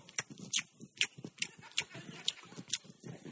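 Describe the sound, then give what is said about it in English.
A voice imitates a little girl at a table crunching Captain Crunch cereal, a quick, uneven run of crisp, crackly mouth bursts, about a dozen in three seconds, fairly loud, with no words spoken. “And I walked down and this little black girl sitting there at the table eating Captain Crunch going.”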